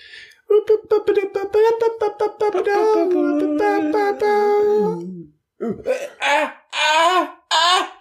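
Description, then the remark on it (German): A human voice imitates a raptor's scream with strained, screechy, pitch-bending vocal cries, a long wavering shriek followed by several shorter squawking bursts, loud. “Ist das jetzt der neue Raptorenschrei?”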